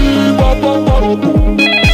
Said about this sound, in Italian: Arriva una telefonata in studio.